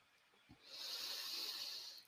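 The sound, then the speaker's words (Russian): A single slow, deep breath during a meditation, drawn through the center of the chest, a soft airy rush that swells and holds for over a second before fading, preceded by a faint low bump, with no talking. “Дышим мы во время медитации только через сердце, точнее через сердечную чакру, соответственно, в центре груди вот так вот дышим.”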